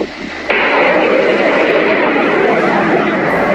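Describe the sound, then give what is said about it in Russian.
A loud, steady engine roar of a drone passing overhead near the Black Sea coast of Krasnodar Krai, Russia, surging in abruptly after a brief quieter moment and holding a continuous, noisy rush to the end. “Ну, мам, это дрон, Ой, смотри.”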